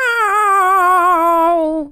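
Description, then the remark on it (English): A person imitates a cat's meow: one long, loud vocal tone lasting about two seconds, wavering slightly and sliding downward in pitch before trailing off. “Meow.”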